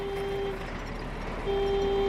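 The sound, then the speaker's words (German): A loud vehicle horn sounds in two long steady blasts, one at the start and one at the end, with a gap between them, over a rumbling engine and road noise. “Plötzlich ertönt eine laute Hupe.”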